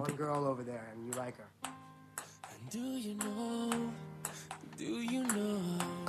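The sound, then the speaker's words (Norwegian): A ping-pong ball bounces in a quick, uneven series of sharp little clicks, sitting in the background beneath a voice that carries on over the top. “Jeg har hørt på ballen i bakgrunnen.”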